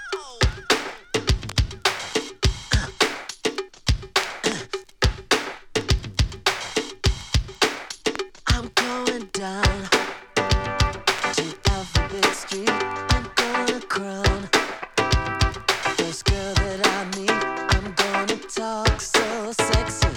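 An upbeat pop song plays from a record, with a punchy, steady drum beat, bright layered instruments and a busy groove, loud and continuous throughout.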